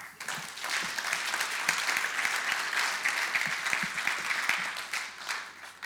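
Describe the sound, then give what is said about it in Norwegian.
Steady applause from a group of people, dense and continuous with overlapping claps for about six seconds, moderately loud and without any talking over it. “Jeg gir deg en applaus, syns jeg.”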